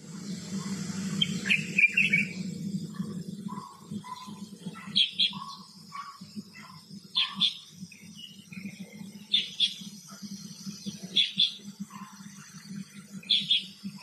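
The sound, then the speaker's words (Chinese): Birds sing, recorded on a balcony, in bright, repeated chirping phrases, sharp high notes returning every second or two alongside lower whistled tones, over a steady low hum and faint insect-like buzz; no one speaks. “阳台上的鸟鸣录音”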